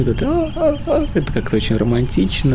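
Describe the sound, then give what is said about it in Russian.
A person talks in Russian and briefly imitates seagull cries with a few short, drawn-out vocal calls in the middle of their speech. The voice is clear. “Да, чайки – это страшная вещь.”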